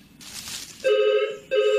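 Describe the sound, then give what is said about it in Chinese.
A telephone rings twice in quick bursts, a loud, steady electronic trill with bright overtones, following a moment of soft rustling noise. “哦，我去接电话。”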